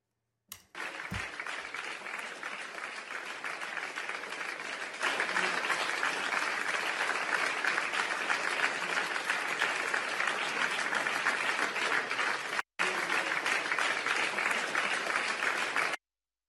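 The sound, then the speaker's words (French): Sustained applause at a standing ovation in the Île-de-France regional council, the elected members standing to applaud: a dense steady clatter of many hands that swells louder partway through, briefly cuts out, then continues without any talking. “et puis il va y avoir, voilà, une standing ovation, tout le monde va se lever pour applaudir, sauf quelques-uns”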